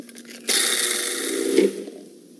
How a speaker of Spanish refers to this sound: En un procesador de alimentos o en una licuadora agregamos los ajos, el agua y lo molemos bien.